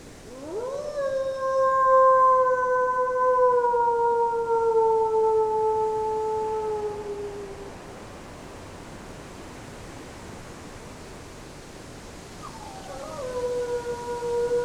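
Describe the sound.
A person imitates a wolf howl after eleven o'clock at night, trying to get wolves to howl: one long, rising then slowly falling howl, a quiet pause, and a second howl starting near the end, all over steady wind noise in the trees.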